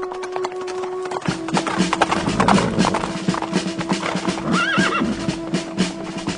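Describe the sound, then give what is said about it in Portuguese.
Horse hooves clip-clop in a steady rhythm that starts after a brief pause, as several men ride on horseback toward Jezreel, and one horse whinnies partway through. “Ei, vejo alguns homens chegando a cavalo!”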